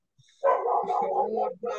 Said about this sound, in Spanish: Sí, tengo un perrito acá que se vuelve loco con los... Cualquier perro que pase.